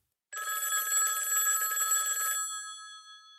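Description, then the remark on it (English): A motel room telephone bell rings loudly in one sustained, rattling burst of about two seconds, its bright metallic tones ringing on and fading after the clapper stops. “About a half hour later, the motel room phone rang.”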